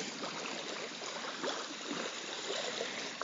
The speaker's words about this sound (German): Das Wasser spült so gerade bis zu unseren Füßen.